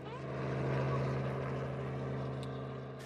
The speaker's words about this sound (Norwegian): Et helikopter flyr over savannen og kretser over områdene med busker og skog. Om bord er viltvoktere med kraftige kikkerter og automatvåpen. De speider etter krypskyttere.